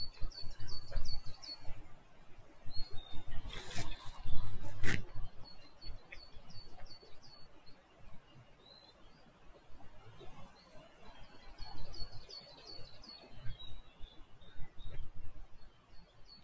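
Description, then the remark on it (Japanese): Many cicadas sing outdoors in trees in repeated, rhythmic bursts of high, buzzy chirping. They started suddenly about a week earlier, while mornings and evenings are still cold. The chirping carries on steadily over a low background rumble, with a couple of brief louder noises near the start. “そう、セミがいっぱい鳴いてますよ。セミだと思うんですけどね。”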